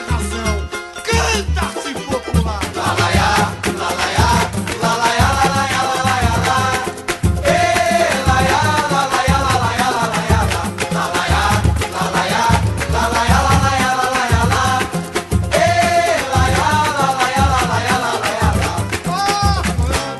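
A lively song plays loud and continuous, with a sung vocal line riding over a full band and a steady, punchy bass-and-percussion groove throughout.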